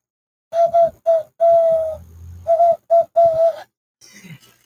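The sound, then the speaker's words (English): A person blows into cupped hands to imitate a dove's call: hollow, breathy hoots in two close phrases, each two short notes followed by a longer drawn-out one, clear. “You make it with a combination of your hands and and blowing.”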